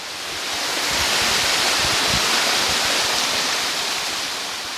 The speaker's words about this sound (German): Wir hören ja auch schon den Wasserfall im Hintergrund näher kommen.